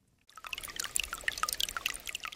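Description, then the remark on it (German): Glacier meltwater dripping and trickling in summer: a steady patter of many small, bright drips over a soft running-water hiss, starting abruptly after a brief moment of quiet, with no voices. “So kann ein Gletscher im Sommer klingen.”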